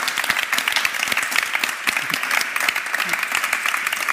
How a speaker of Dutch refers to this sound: Ik ga even. Mag ik even nog een applaus